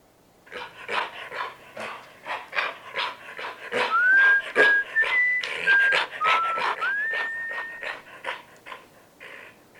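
A guard dog at night makes rapid, breathy huffing sounds with a few high whining tones in the middle, then calms down and fades toward the end as an intruder approaches.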